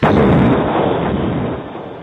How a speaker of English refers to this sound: the rock that had entrapped his sister exploded into a thousand pieces